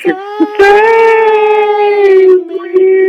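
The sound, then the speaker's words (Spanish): Voices loudly singing a TV series intro song, a few short yelps giving way to one long, wavering held note that sounds strained and almost howl-like. “es que no podíamos irnos sin hacer la cancioncita, güey.”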